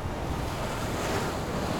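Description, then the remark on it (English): Wind and surf roar together against cliffs in a dense, unbroken wash of noise, the waves churning steadily rather than breaking in distinct crashes, loud with no voices. “Something screamed in my ear wind or Ida, I didn't care.”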